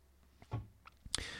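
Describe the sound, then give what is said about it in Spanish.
A wardrobe door swings shut with a soft low thud followed by a sharp latch click, quiet, with a faint hiss trailing afterward. “Y ahora cierro la puerta.”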